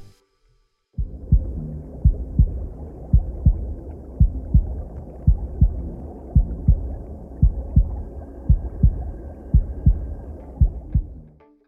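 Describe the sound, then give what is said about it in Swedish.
A mother's heartbeat as heard from inside the womb thumps steadily and muffled in paired low beats about once a second, over a constant deep whooshing rumble of blood flowing through the umbilical cord and air filling the mother's lungs. No voices. “Den hör mammans bultande hjärta, ljudet från luften som fyller mammans lungor och även ljudet från blodet som åker igenom navelsträngen.”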